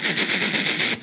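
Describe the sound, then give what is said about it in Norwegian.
A person imitates machine gun fire with their mouth: about a second of harsh, hissing, rapid sputtering bursts, loud, with no words, cutting off abruptly at the end. “Det er alt fra, fra helikopter Til maskingevær.”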